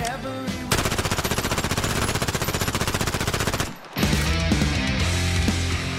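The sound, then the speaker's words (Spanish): A loud, rapid burst of machine gun fire sound effect rattles steadily for about three seconds on the Monsters of Rock program of Rock and Pop 95.9, then cuts off as distorted heavy music kicks in. “pero como estamos en el Monsters of Rock de la Rock and Pop 95.9, agarramos el cargador y se viene lo siguiente.”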